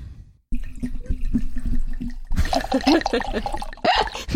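Wine streams from the spout of a wine box into a glass, a steady trickling gurgle that swells louder and splashier in the second half, with faint voices in the background.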